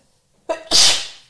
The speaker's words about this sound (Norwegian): Og jeg må nyse.